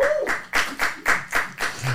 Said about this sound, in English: Are we clapping for me being high value or or the story?